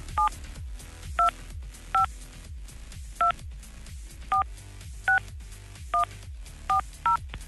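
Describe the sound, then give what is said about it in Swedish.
A quick sequence of about ten telephone keypad tones, each a short two-pitched beep, pressed at an uneven pace to call someone who sent in a bill, over a steady low background hum with no talking. “Och eh, vi ska ringa.”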